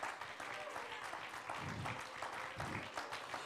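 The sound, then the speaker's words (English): A church audience claps their hands in praise of the Lord, a dense, steady wash of many hands clapping together at even loudness, with faint voices mixed in underneath. “I think we ought to give the Lord a hand clap of praise right now and just magnify and glorify Him right now.”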